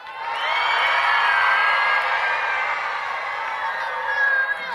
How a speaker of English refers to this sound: How many agree with me? Would you raise your hand and cheer real loud?